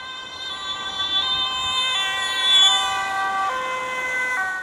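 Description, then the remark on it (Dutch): An ambulance siren wails in a steady two-tone pattern, alternating between high and low pitches, loud throughout, as the ambulance passes through stopped traffic, with faint road noise underneath and no one speaking. “Nou, als al het verkeer dan geregeld is, alles staat stil, dan gaat hij het verkeer, wat komt uit de richting van de ambulance, dit gaat hij doortrekken, dat er niks meer, eh, meer aankomt, dat die ambulance een vrije doorgang heeft.”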